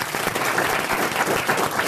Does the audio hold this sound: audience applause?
yes